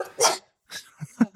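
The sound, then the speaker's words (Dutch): A single sharp sneeze bursts out, followed after a short pause by a softer breathy exhale and a couple of brief low vocal sounds. “Gezondheid. Excusez-moi.”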